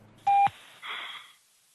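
A single loud electronic telephone tone sounds for about a quarter second, followed by a softer burst of hissy line noise, with no talking, as the German chancellor, in quarantine in Berlin, joins a phone call with the state leaders on 1 April.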